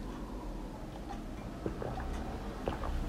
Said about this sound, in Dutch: Nou, ik pak weer even een slokje water voordat ik doorga naar het derde element.